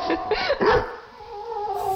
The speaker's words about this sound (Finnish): Täältä kuulostaa kiimainen rakki.